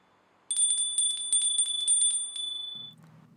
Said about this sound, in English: Do you like the bell? It's a little much, I guess, but hey, why should I stop being myself now when everyone is so.